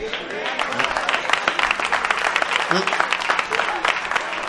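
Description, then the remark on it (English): An audience bursts into steady, dense applause, countless overlapping hand claps sustained for several seconds, with a few voices calling out beneath the clapping. “Oh, you see the hand claps?”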